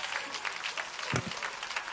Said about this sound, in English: Why don't we give the Lord a real big hand clap of praise?